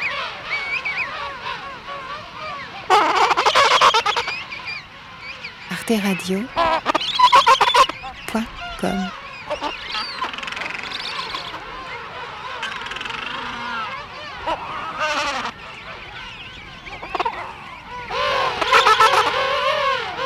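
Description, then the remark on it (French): A dense chorus of loud, overlapping calls from a king penguin colony, trumpeting and honking with warbling tones, rising and falling continuously as many penguins call at once. “La France euh, héberge la moitié des manchots euh, royaux du monde.”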